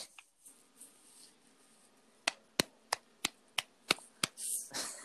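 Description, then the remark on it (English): Seven sharp, unenthusiastic hand claps in a slow, steady rhythm, given as applause for people entering a giveaway contest. They follow a quiet stretch and end in a brief burst of rustling noise; no one speaks. “that was a sad ass fucking applaud for people that want to hang out with us.”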